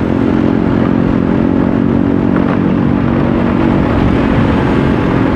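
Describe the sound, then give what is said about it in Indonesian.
Steady, dense road traffic on a bumpy, patched Jakarta road with many vehicles on a hot afternoon: a continuous loud rumble of car and motorcycle engines with low droning hums and occasional clatter, no voices, holding constant for the whole stretch. “banyak jalanannya tidak mulus banyak lubang dan banyak polisi tidur banyak tambalan-tambalan di jalanan ya jalan rayanya ditambal-tambal jadi mengendarai kendaraannya harus hati-hati ditambah lagi banyak kendaraan”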